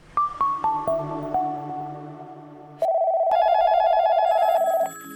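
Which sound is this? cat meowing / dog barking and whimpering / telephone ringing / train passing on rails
telephone ringing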